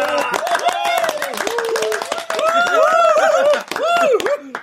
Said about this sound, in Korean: 우리 운수 대통이 무려 30여 분의 고객님들께 복을 팔았습니다. 기념으로 모두 박수!